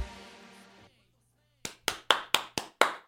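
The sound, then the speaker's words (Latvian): After a brief sustained tone and a moment of silence, six crisp hand claps ring out in a quick, steady rhythm, a short burst of applause. “Rīta aplausa jums.”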